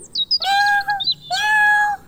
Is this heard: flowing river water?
no